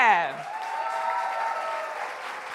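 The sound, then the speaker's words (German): Steady audience applause for a performer introduced on stage, a dense wash of many hands clapping at an even level throughout, preceded by a brief voiced sound at the very start. “Deswegen einen großen Applaus für den wunderbaren”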